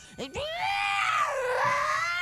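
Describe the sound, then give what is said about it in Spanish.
A person vocally imitates a female cat in attack mode that had dug its claws into their arm, letting out a loud, sustained, wavering screech after a couple of short sharp onsets, with no other talk. “Entonces la gata hacía un sonido como”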